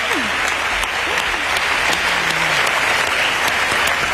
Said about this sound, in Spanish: Y eso, ya de entrada, merece un gran aplauso como este. Venga. Por favor.